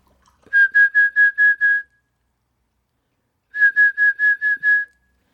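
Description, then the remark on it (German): A person whistles an imitation of the call of a single bird in the trees in front of their house: two bursts of six quick, evenly spaced chirpy notes on a steady pitch, separated by a pause, clear with no talking. “Weil ich habe seit ach, vielleicht vier Wochen in den Bäumen vor meinem Haus einen Vogel, der mich wahnsinnig macht. Ja. Der macht nämlich immer so.”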